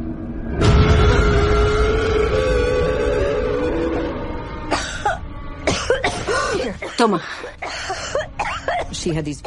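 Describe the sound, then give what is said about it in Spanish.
A woman has a harsh, prolonged, loud coughing fit with repeated strained bursts, blending into throaty rasping and gasps near the end, as if she cannot breathe. “Empezó a darle un ataque de tos hasta el punto de darme miedo porque parecía que no podía respirar.”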